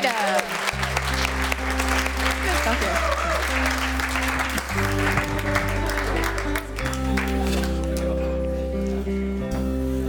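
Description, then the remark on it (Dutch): An audience applauds steadily for about ten seconds, a dense, even clatter of clapping hands over sustained low musical chords that shift a few times beneath it. “Geef hem een applaus alsjeblieft.”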